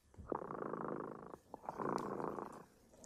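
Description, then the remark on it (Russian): Remota's cat purrs, a steady rumbling buzz in two long breaths with a short pause between them, fairly quiet and with no voices. “Кот Ремота запел свою песенку. Это значит, что пора засыпать.”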